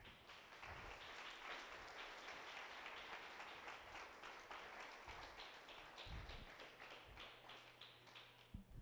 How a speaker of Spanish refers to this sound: el otro aplauso al Señor.